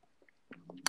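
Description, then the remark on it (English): A quick sip of a dark, almost reddish, high-alcohol beer from a can: soft wet mouth noises and a slurp, ending in a brief bright swallow-like click. It is quiet, with no talking. “I'm gonna take a little sip out of my can so my I can actually do this correctly.”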